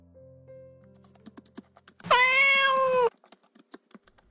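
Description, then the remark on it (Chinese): A single loud, drawn-out meow from Qiuqiu the cat, lasting about a second, cuts through a steady patter of keyboard typing, with quick clicks continuing before and after it. “敲着键盘的李潇被球球的叫声吸引住视线，看向球球”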